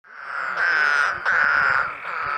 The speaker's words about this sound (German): Das hört sich mal wieder froschig an. Ja, ja, es ist Frosch.